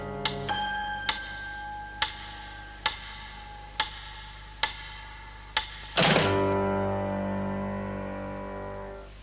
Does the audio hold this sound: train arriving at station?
no